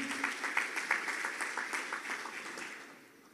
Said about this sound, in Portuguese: Você pode dar um glória a Deus aí? Você pode celebrar com suas palmas a leitura da palavra de Deus aqui nessa manhã?